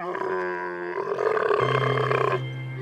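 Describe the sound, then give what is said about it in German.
An angry camel grumbles in a deep, rumbling growl that swells into a throaty, gurgling roar, loud, lasting about three seconds with no voices. “So klingt ein Kamel, wenn es sauer ist.”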